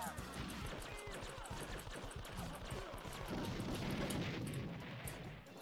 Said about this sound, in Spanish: La explosión me hizo cagar a mí, pues, weón.